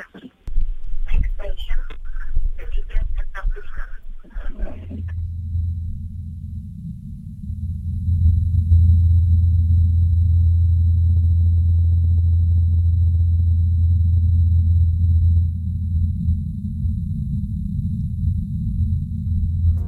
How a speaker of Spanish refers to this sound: Como la atmósfera es más fina, se oye más bajito y más raro, como lejano, a pesar de que esté cercano. Y lo podemos oír de verdad porque se ha hecho. La NASA ha puesto un dron helicóptero volando en Marte y ha grabado el sonido.